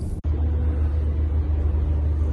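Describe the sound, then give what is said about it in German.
The Schalke football team bus arrives; its large engine rumbles steadily, a deep, continuous drone that fills the short stretch without a break, with no voices. “Meine lieben Schalker-Freunde, der Bus ist angekommen.”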